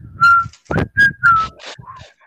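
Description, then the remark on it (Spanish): Someone attempts to whistle in short, breathy bursts, a few thin wavering tones broken up by puffs of air, as if struggling to get a clean note. “¿Tú sabes chiflar?”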